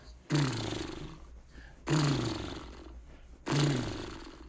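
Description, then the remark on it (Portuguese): Three buzzy lip trills in a row, done as a vocal exercise of trembling the lips like a motorcycle engine, starting loud, then sliding down in pitch and fading, with short pauses between them. “Agora vamos fazer o segundo exercício, que é tremer os lábios, igual o barulho de moto, sabe?”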